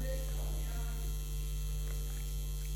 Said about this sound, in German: Das Brummen wird auch besser.